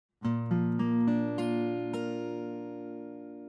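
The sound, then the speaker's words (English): A B flat major chord on guitar played one string at a time, six quick plucked notes building into a full ringing chord that sustains and slowly fades, with no talking. “A B flat chord sounds just like this.”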